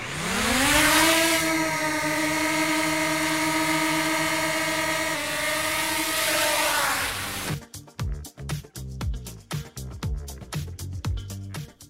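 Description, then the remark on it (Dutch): A drone used for visual inspection for NS hovers with a loud, steady whirring buzz that wavers in pitch before cutting out as it descends, followed by choppy, gusty rumbling like wind or handling noise. “de drone is weer neergedaald.”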